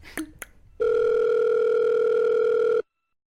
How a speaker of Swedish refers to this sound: Så jag tänker att vi ringer in honom ja. och hälsar på.